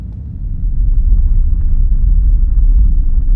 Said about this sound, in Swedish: Och som om berget ville bekräfta min rädsla avbröts mina tankar av ett svagt muller. Det började vibrera i marken jag kunde höra stenar som brakade ner i marken bakom oss.